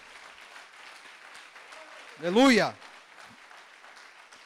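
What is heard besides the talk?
audience applauding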